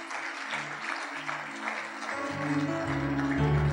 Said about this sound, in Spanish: Muy bien, muchachito. Un aplauso.